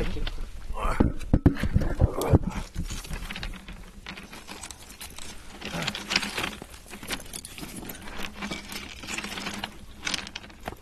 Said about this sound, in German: So ein, warte mal mal, mein, ich leg mal meinen Rucksack.